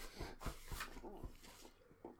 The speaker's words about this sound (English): My dog's wagging his tail there at the minute.